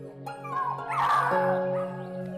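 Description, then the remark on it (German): Seven silver-grey puppies lying in straw behind a wooden gate in a pen on a farm whimper and yip, high-pitched cries overlapping continuously with a few sharper yelps, with no talking. “Und was hier hinter dem Holzgitter im Stroh liegt, ist an Niedlichkeit kaum zu übertreffen. Hundewelpen.”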